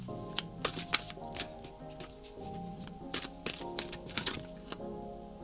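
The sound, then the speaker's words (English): A deck of cards is shuffled gently before another card is pulled, a run of crisp riffling and snapping bursts over about five seconds, with soft steady music playing underneath. “I want to pull one more beyond Lemuria and I'm going to have to shuffle it. So I'm going to do it as gently as I can since I had pulled so many of them before.”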